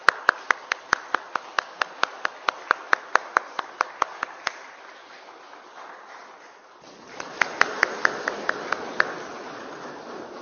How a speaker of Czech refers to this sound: Sestra oslavila 80. narozeniny Můžeme zatleskat.